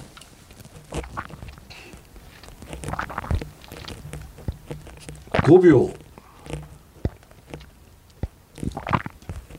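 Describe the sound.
A few wet, throaty gulps of someone repeatedly swallowing saliva during a 30-second swallowing test in which the swallows are counted, spaced unevenly over several seconds, the loudest midway through, with a brief spoken word and other soft mouth noises.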